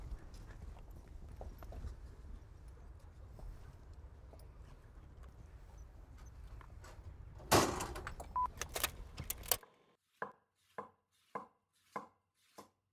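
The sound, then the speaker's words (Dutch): Hooves of the horse Jo clip-clop on a hard surface, five crisp, evenly paced steps ringing out clear after a stretch of steady rushing background noise and a brief clattering burst. “Jo is ook wel een heel mooi paard.”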